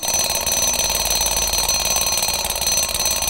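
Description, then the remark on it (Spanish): An alarm clock rings loudly and without pause, a harsh, rapid metallic rattle that fills the whole stretch, with no voices. “Bueno, ese es el llamado a despertar y escuchar para que este tema se nos quede bien claro.”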